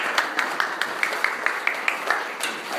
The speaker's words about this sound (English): Okay. Thank you very much. will give these folks a round of applause.